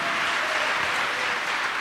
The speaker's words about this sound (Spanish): ¿Cuánto le dan un aplauso a Cristo, hermano? A su nombre sea la gloria. Amén.